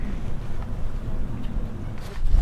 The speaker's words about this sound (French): Donc on est au sud du golfe du Morbihan. On est au sud, on est à l'entrée du golfe et on a une vue incroyable sur la baie de Quiberon. Et il y a beaucoup de vent, car ici on est en hauteur, donc on a tout le vent de l'océan qui arrive